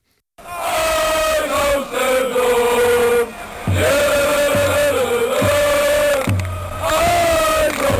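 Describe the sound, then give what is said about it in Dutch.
Football supporters sing a loud chant in unison, a mass of voices holding long, drawn-out notes, with steady low thumps marking the beat through the second half. “Maar je hoort gewoon dat die jongens hart en ziel in zo'n lied leggen.”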